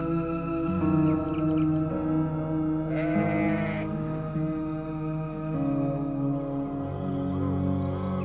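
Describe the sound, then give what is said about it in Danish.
A sheep bleats again and again at night, heard from a tent while camping under the open sky, loud, wavering calls following one another with hardly a pause, their pitch shifting from one bleat to the next. No one speaks. “Der er et får, der siger den der lyd hele tiden, som betyder, at jeg tror, det bliver meget svært at sove.”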